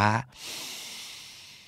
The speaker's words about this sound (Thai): แต่ถ้าเกิดเราหายใจลึก ๆ ช้า